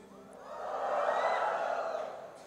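An audience cheers and shouts together in a dense, roaring, reverberant wash of voices that swells to a peak midway and then eases slightly.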